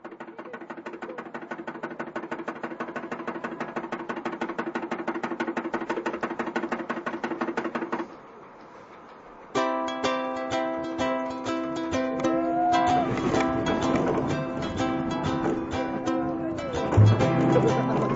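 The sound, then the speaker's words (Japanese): A coin-operated panda car ride trundles slowly along in a corner of a busy amusement park, a steady electronic tune and motor drone playing, then a brief pause before a busier jingle resumes with a low hum and a thump near the end. “愉快なパンダカーです。”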